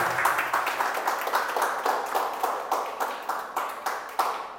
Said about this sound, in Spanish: Dale un aplauso a Dios porque Él está aquí.